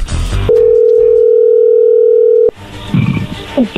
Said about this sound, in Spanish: se está marcando, no haga ruido. Vamos a ver qué sucede.